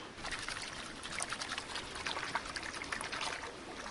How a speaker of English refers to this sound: So this is a swirling the water around in it, letting the lighter stuff float away on the stream, leaving hopefully the heavier stuff behind in the bowl.